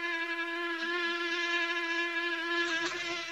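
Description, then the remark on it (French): A mosquito's high, thin whine hums steadily for a few seconds, its pitch wavering slightly as it hovers, with no voices around it. “Et voilà que le pire des troubles faits se ramène, le moustique.”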